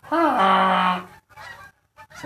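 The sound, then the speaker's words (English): Canada geese honking in the background: one loud, drawn-out nasal honk, followed by a few shorter, fainter honks in quick succession. No one speaks. “Yep, here comes some beautiful, majestic Canadian geese. Hear them in the background, just sounding all beautiful.”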